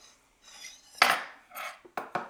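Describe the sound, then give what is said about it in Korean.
Tableware sounds as steamed cabbage and pork belly are dipped into a small dish of ponzu sauce: a few sharp clinks and taps of utensils against a bowl, with soft scraping between them and no talking. “배추랑 삼겹살을 이렇게 해가지고 폰즈에다가 일단 먼저 찍어서”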